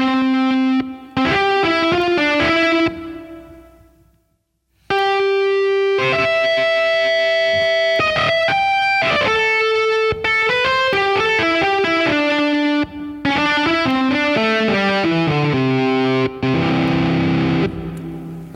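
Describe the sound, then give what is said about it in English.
A distorted electric guitar lead from a virtual instrument's festival lead preset plays a loud melodic line of sustained, gritty notes. It breaks off briefly after a short phrase, then carries on with a longer run. No one speaks. “this kind of guitar. Go down. Festival lead. Festival lead.”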